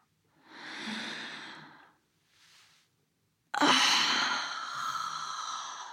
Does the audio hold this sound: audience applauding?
no